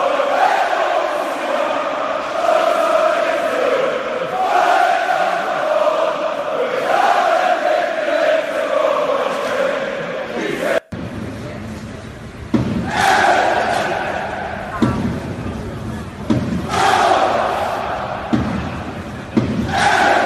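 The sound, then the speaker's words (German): Gladbach football fans in an empty stadium on Tuesday evening, reacting to a match cancellation and heavy rain, chanting and shouting together in a loud, sustained roar, then after a sudden break a second stretch of rhythmic crowd chants punctuated by sharp claps or thuds. “Und äh, schauen wir uns mal wie die, an, wie die Gladbach-Fans am Dienstagabend im leeren Stadion auf diese Absage und diese Wetterverhältnisse reagiert haben.”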